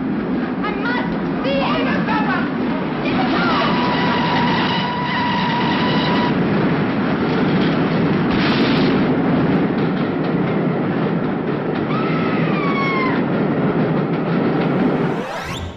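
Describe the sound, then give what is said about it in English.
A train approaches and roars past loud, a steady heavy rumble of wheels with shrill whistling squeals rising over it at intervals, before it cuts off abruptly. “the arrival of a disturbed young woman who seems obsessed with looking at the ghost train which seems to be drawing ever nearer.”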